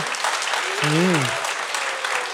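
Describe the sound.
Steady, dense applause from an audience for a doctor fills the whole stretch, a broad crackling wash of many hands clapping, with a brief voice rising over it in the middle.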